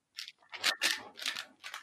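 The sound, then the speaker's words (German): Moist smacking and crinkly crackling bursts of someone noisily chewing gum, in five quick irregular pulses with no talking. “Isst du? Ach, Kaugummi. Ich dachte eine Tüte Chips. Ist ein Kaugummi.”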